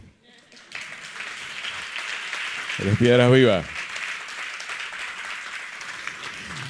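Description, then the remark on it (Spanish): A crowd breaks into steady, sustained applause that fills the room and continues to the end, with a voice briefly speaking loudly over the clapping midway through. “Por cierto, un aplauso”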